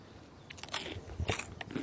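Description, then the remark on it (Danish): A crisp bite into crunchy bread served with soft salmon, followed by a few sharp crackling crunches as it is chewed, with no talking. “Du har helt bløde laks, og så er det sprøde brød.”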